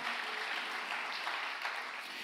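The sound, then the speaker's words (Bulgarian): An audience breaks into sustained applause given to God as an offering, a dense, steady wash of many hands clapping at once, loud and continuous for the whole stretch with no voices rising above it. “О, ако вярваш за това, защо не дадеш на Бога едно дарение на ръкопляскане, като че вярваш, че Бог е на път да те възстанови напълно.”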